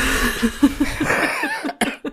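coughing fit

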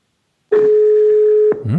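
telephone ringback tone

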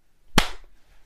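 hand clap

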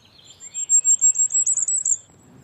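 bird call

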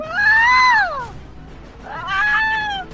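peacock call

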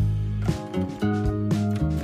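segment intro jingle

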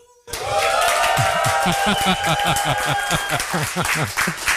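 audience applauding and cheering

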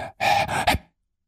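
heavy panting

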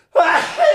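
sneeze

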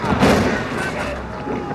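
cannon fire

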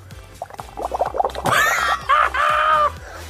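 bubbling liquid

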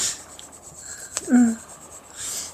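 pen scribbling on paper

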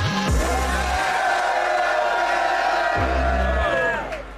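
audience cheering and whooping

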